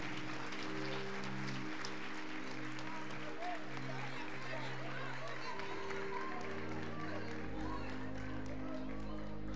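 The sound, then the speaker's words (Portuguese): An audience applauds the Lord Jesus in a dense, continuous wash of clapping that lasts the whole stretch, with low sustained keyboard-like tones humming steadily underneath. “Aplauda o Senhor Jesus.”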